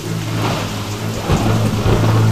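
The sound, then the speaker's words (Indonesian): A loud, stormy roar of rushing wind with a deep rumbling underneath that swells partway through as the sky darkens over Nineveh, filling the whole stretch without any voices. “Angin bertiup dengan kencang dan menimbulkan suara gemuruh.”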